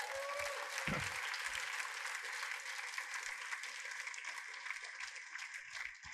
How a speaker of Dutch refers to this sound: Hoeveel mensen hierdoor gezegend? Halleluja. Geef God een groot applaus.